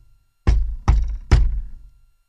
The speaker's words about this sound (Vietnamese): Một lúc sau, có tiếng gõ cửa